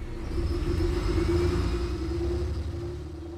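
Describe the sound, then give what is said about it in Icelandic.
A steady low engine rumble drones throughout, a bus cruising along with a constant hum and faint road noise, no voices present. The bus carries the next shift of mine workers on a 50-minute trip north from the city of Copiapó into the desert to the mine. “hann lætur sér hafa það að fara um borð í rútuna sem ferjar næstu vaktmann að náminni.”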